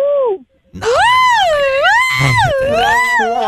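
A man lets out a loud, drawn-out shout that wavers up and down in pitch, starting with a short burst, pausing briefly, then holding for about three seconds close to the microphone.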